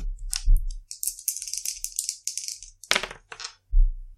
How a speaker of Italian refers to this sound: Dovremmo tirare il nostro wanted level che è a 2 e incrociarlo sulla tabella d'elite che ha 5, di conseguenza due dadi.